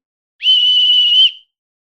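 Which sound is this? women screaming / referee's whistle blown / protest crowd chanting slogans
referee's whistle blown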